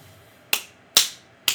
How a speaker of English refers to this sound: these claps represent my boiling anger.